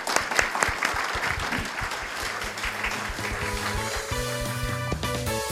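Steady applause from an audience at a La Atre investor relations (IR) presentation, sending off the company's president. Dense clapping holds at an even level before music begins to rise underneath toward the end.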